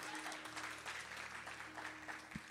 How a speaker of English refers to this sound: And everybody who believes it, give the Lord a strong hand clap. This is God's word.